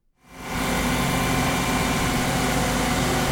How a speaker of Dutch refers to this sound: Michelangelo-straat, 17 januari 2020. De vuilniswagen komt langs.